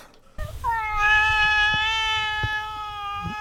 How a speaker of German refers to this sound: So, für die Haustierfähigkeit, da wollen wir doch einfach mal unseren Studiokater fragen.